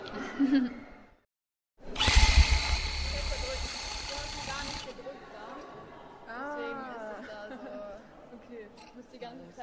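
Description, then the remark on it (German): Rug-tufting workshop noise at an exhibition by the collective Krembach: a loud, steady motorized whirring buzz runs for about three seconds, then stops, leaving people chatting and talking over a low background hum. “das sind die Geräusche vom Teppichbastel-Workshop in der Ausstellung vom Kollektiv Krembach.”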